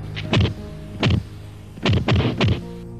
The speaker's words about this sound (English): Before going into a series of palm thrusts with corresponding air thump noises.